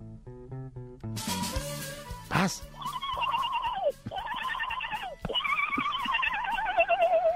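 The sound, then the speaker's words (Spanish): A horse neighs in three long, quavering whinnies back to back, loud, after a short musical tone and a burst of clattering noise at the start, as a drugged horse enters a party. “órale, y de repente entra un caballo drogado.”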